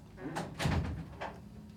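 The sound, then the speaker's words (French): A door is pushed shut, with a soft scrape, a dull thud and a couple of lighter clicks as it settles, over faint background murmur. “Fermez la porte.”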